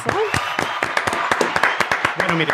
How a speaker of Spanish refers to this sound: Y eso amerita un aplauso. Un aplauso